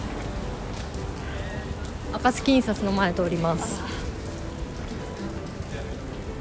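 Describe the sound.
Steady rain patters and hisses outdoors for the whole stretch, a soft even wash of drops, while a person briefly speaks partway through; recorded while walking past the Communist Party headquarters, where red flags flutter in the rain.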